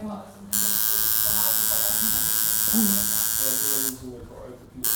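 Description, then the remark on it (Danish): A tattoo machine buzzes steadily for a few seconds as the tattooist makes small adjustments to the machine and needles at the start, a loud, even electric whine that starts and stops abruptly, while people talk underneath it. “Og Maskinen og nålene, hvordan de sidder, hvor langt ude og sådan noget.”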